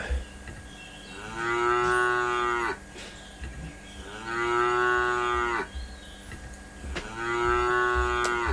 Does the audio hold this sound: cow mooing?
yes